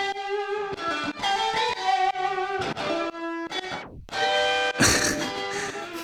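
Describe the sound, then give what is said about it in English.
A distorted electric guitar solo, the main take of a demo recorded DI and reamped, plays alone, loud, with sustained singing notes and quick runs. Near the end comes a sharp downward slide before the notes pick up again, bright and gritty. “Then I'm watching it here, I've got three versions of it going at the same time.”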